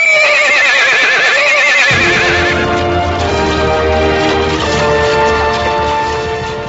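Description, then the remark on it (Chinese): A loud, wavering horse whinny opens, then a heavy rumble of galloping hooves surges in and carries on steadily, with further neighing layered over the thundering herd. No one speaks. “心中万马奔腾。”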